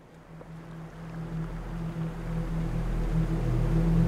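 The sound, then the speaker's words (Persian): A deep, steady roar of a stormy sea, with a low droning rumble that slowly swells louder over a few seconds; no voices are heard. “صدای ما چای خروشان گوشهاش رو پر کرده بود گویی که دریایی طوفانی داخل خانه جریان داشت”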